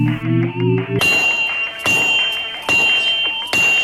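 Four forge hammer strikes land at a steady, unhurried pace, each a heavy clang that leaves a bright metallic ring. A low rising hum comes before the first blow.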